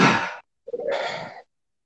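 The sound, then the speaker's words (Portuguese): Two loud, breathy rushes of air as a person inhales forcefully in a breathing exercise: a short forceful breath, a brief pause, then a longer, deeper one, with no talking around them. “Então a gente vai fazer esse movimento e no final da respiração nós vamos dizer a palavra agora.”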